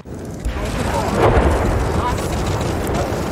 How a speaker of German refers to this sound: Um die Bombe zu entschärfen, wurde sie in den Main gezogen und dort kontrolliert gesprengt.